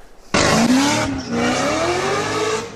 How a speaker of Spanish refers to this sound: Autos a toda velocidad, quemando llanta o haciendo piruetas, son actividades cada vez más comunes en el sur de California. Sus conductores son en su mayoría jóvenes que literalmente se apoderan de las calles.